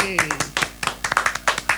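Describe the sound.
A brisk flurry of sharp hand claps, roughly a dozen in under two seconds, with an uneven rhythm and fairly loud snaps. A faint voice is briefly audible at the start.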